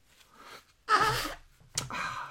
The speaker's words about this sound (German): Und jetzt muss ich mir kurz die Nase putzen.